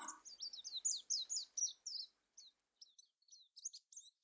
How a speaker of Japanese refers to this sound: 雨も止んだし、スズメたちも鳴き始めた。夜明けも近い。